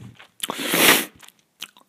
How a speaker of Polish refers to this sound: Przepraszam za to ciąganie nosem, ale to już tak jest.